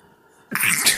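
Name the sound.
sneeze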